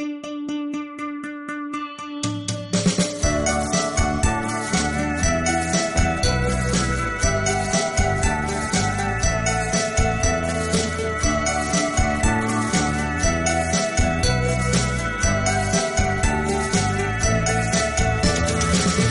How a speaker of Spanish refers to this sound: Se trata nada más y nada menos que de China. Así que vamos a escuchar un tema musical de este gran país asiático y ya volvemos.